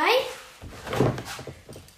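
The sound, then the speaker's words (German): A door swings shut: a brief high creak, then a solid thud as it closes, with some voices murmuring around it. “Tür zu.”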